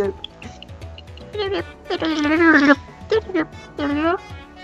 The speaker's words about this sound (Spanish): un sonidito del siguiente juego del que vas a hablar para que la gente lo ubique.